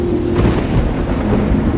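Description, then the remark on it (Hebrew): Deep, continuous thunder rumbles loudly, a heavy low roll that fills the short span with steady storm noise and a hint of rain behind it. No voices. “רעמים מבשרים שאסון מתקרב.”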